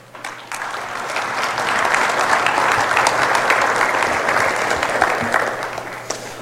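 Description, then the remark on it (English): An audience claps steadily, a dense wash of many hands that swells within the first second, holds fairly loud and even, then begins to thin slightly toward the end. No one speaks over it. “Applaud or prayers?”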